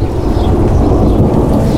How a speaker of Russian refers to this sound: Слышите? Это звуки грома.